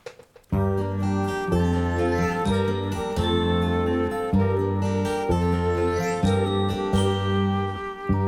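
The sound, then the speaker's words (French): A French chanson song intro begins after a brief silence, with steady instrumental music: rhythmic low chords and bright, tinkling melodic notes, played clearly and fairly loud with no singing yet. “on va faire une courte pause musicale. Alors on va s'écouter …”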